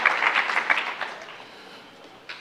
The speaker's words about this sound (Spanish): Así sea, un aplauso fuerte al Rey de Reyes y Señor de Señores.